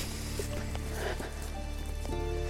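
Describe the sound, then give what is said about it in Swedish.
Light rain patters steadily on leaves and ground in a forest, a soft continuous hiss with scattered drips, quiet, with no voices. “Särskilt när det regnar lite så här, lite lätt.”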